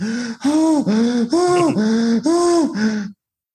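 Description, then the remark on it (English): Actor Roger Moore breathing heavily as he climbs stairs in a James Bond film, the audio left in the movie: about six loud, strained, voiced gasps in a steady rhythm, each with a slight groaning pitch, and no speech. “That's Roger Moore literally going up the stairs in the movie. They couldn't even take the audio out.”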